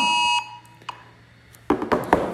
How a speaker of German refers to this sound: der bundesdeutsche Alarm, ne, das müssten wir ja alle haben,